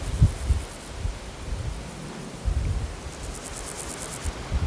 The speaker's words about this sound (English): Meadow grasshopper, pseudochorthippus parallelus. I suspect these all are.